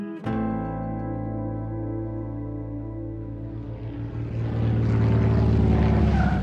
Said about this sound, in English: The plane lands.